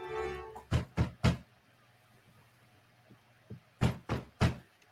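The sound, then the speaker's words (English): Heavy pounding knocks on a door in two quick bursts of three loud thuds, with a couple of softer taps between the bursts. “you pounding on my door like the damn police.”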